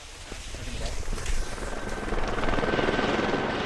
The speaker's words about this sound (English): The town came out in force hiking up the icy Lower Dewey Trail, or catching a ride on a chopper provided by Temsco helicopters to family or friendship bubbles of five or less.